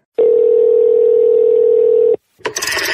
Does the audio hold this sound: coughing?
no